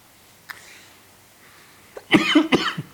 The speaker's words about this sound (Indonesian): Anjay batuk.